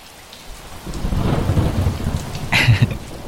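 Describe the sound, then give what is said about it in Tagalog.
A deep roll of thunder builds and rumbles over steady rainfall, swelling louder near the end with a sharper crackle, with no voices. “Ayan, kumulog na tuloy.”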